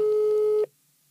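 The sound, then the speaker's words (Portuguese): A telephone call tone as a call is placed to a person who requested a record, on a line that isn't answering: one steady, mid-pitched electronic beep sounds loudly for about half a second, then cuts off into silence. No one speaks. “Agora vamos ligar a outra pessoa que também foi um disco pedido. Ela não sabe que eu vou ligar, portanto, nem sei se ela vai atender.”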